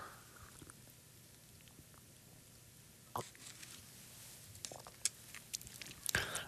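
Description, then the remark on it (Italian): Someone quietly takes another sip of a drink: a few soft, scattered mouth clicks and swallowing gulps, the fullest near the end, over a faint hiss with no talking. “Un attimo solo che bevo nuovamente un pochino.”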